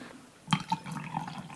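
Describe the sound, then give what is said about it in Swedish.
Coffee pours into a cup, starting with a sudden splash and settling into a steady, gurgling trickle for about a second. No one speaks. “Jag ska få på lite kaffe åt dig.”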